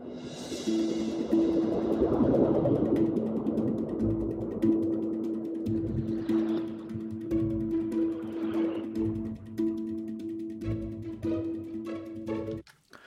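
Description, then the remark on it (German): A designed underwater penguin-swimming effect for a film sequence: a steady low droning tone with rhythmic muffled thumps, occasional soft whooshing swirls and faint bubbly clicks, continuous and fairly loud for about thirteen seconds. “Und äh, eigentlich macht ja ein Pinguin unter Wasser jetzt nicht so krasse Geräusche, dass man ihn jetzt wirklich, wirklich hört.”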